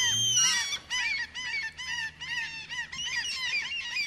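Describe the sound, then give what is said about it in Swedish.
A common gull calls repeatedly in loud, harsh mewing cries, a rapid series of squealing, laughing notes that rise and fall, with faint background noise and no talking. “i alla fall eh, så låter ju en fiskmås så här.”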